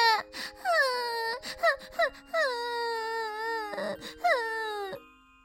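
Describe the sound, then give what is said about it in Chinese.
A voice for Modi, a character in a children's story, suddenly bursts into loud, high-pitched wailing: several short sobbing catches, then long quavering cries that rise and fall, ending in one last drawn-out whimper before going quiet. “说完，莫迪突然哭了起来”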